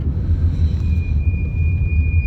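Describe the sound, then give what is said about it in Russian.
A thin, steady high-pitched squeal, like car brakes squeaking, rises over the loud low rumble of a moving car and holds for a couple of seconds. No one speaks. “Что-то заскрипели, то ли тормоза, то ли вода попала.”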